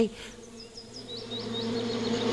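A steady, dense droning buzz of many bees swarming at a bee nest, with a low hum that swells slightly louder toward the end and faint high chirps flickering over it.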